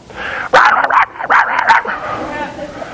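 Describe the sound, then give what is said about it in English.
A person mimics a bunch of poodles yapping and yipping, barking, fighting and snapping, in a quick series of loud, sharp bursts, followed by a quieter stretch of vocal noise. “going to sound like a bunch of poodles in a Kindle around the around your place. I mean, just barking and fighting and snapping and arguing.”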